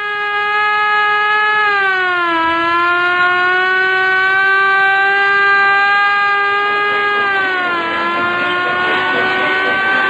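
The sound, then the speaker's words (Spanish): A loud, steady ambulance siren blares continuously, its pitch sliding down and then up again in slow, drawn-out wails as the ambulance leaves the city along the Toluca highway, with no voices present. “Pero amenazando al chofer de la ambulancia, se salió de la ciudad y se perdió por la carretera de Toluca, abriéndose paso con la sirena de alarma.”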